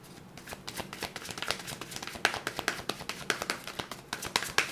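Tarot fortune-telling cards being shuffled in a steady run of crisp, papery riffles and taps, repeating quickly for several seconds at a moderate level with no voices over them.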